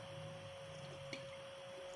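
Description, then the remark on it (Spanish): A faint, brief sip and swallow of water sounds once near the middle, quiet against a steady electrical hum with no talking. “Déjenme tomar tatita agua.”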